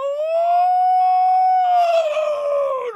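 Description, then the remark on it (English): A person imitates a wolf, holding one long, loud, steady howl before it wavers and slides downward at the end. No other voices or sounds. “to be a wolf.”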